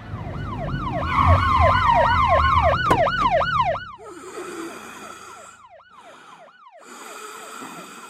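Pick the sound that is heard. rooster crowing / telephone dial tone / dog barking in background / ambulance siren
ambulance siren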